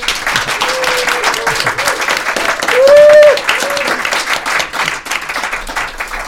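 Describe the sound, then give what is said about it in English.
Sustained applause from an audience at an event at the China Institute, a dense patter of many hands clapping for the guests, with a few voices calling out over it and a brief cheer rising in the middle. “So let's hear it for our guests and for the China Institute.”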